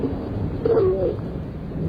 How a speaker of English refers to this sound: Oh no, but it's raining outside.